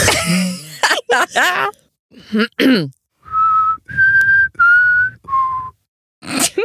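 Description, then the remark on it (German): A person whistles four steady, sustained notes in a short descending tune, clear, preceded by a few throat-clearing coughs and followed by a brief breathy noise. “Ich bin kein Profi-Pfeifer aber es war okay.”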